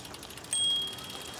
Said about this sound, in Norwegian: Medan Sander står slik, hører de ei sikkelbjelle.